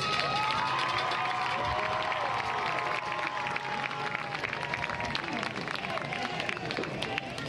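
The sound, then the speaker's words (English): A crowd applauds and cheers steadily throughout for both teams at the 2023-2024 All-Conference Tournament, including runner-up Battle Creek Bears, dense clapping mixed with shouts and whistles, sustained and fairly loud without letting up. “Battle Creek Bears, outstanding job. Give them a big round of applause.”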